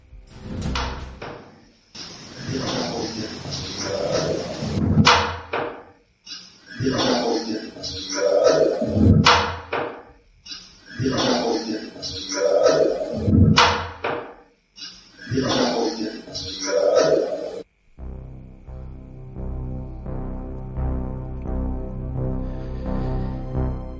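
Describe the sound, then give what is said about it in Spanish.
A door in a kitchen area is worked open, by someone who had been left outside and wanted to come in, with a series of loud clacking, rattling latch sounds in four or five bursts, followed by a steady, low droning tone. “Estamos en la misma zona, en la zona de la cocina, siguen habiendo asistentes y justo se abría esa puerta porque alguien se había quedado fuera y quería entrar y es cuando se escucha como el clac clac”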